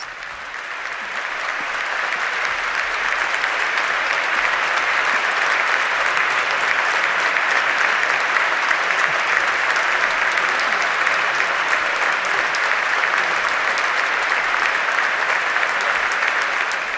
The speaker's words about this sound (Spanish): le invita a pasar delante de él y se va a sentar justo al lado de la cátedra, no en la cátedra, ya que es obispo auxiliar, pero justo al lado, en este momento se está sentando y recibe este aplauso de los presentes.